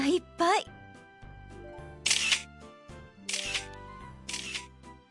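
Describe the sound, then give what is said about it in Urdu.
A camera shutter clicks three times, crisp, spaced roughly a second apart, as many photos are taken at a hot spring famous abroad, after a brief burst of voices at the start and over a low steady background. “たくさん写真を撮っているのねはいここは海外でも有名な温泉です”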